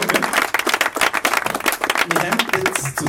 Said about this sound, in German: Ein kurzer Applaus schon mal, dass du da bist und so. Danke vielmals.